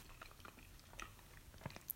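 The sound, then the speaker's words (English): Someone chews pizza right up against the microphone, with soft wet smacks and small crunchy clicks in an uneven rhythm, quiet overall and with no talking. “I don't want to chew on the mic though, because these mics are too hot.”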